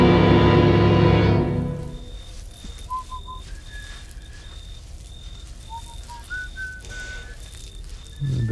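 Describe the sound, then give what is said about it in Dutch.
Soft whistling of a few short melodic notes over a quiet, hissy background, following a brief burst of music at the start. “maar niet fluiten.”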